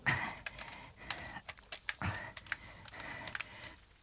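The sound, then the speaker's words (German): A quick, irregular run of sharp, fairly crisp computer clicks, like someone clicking through photos one after another, with no talking. “klick noch mal weiter, Peter”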